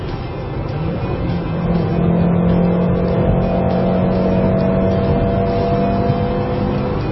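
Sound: car engine revving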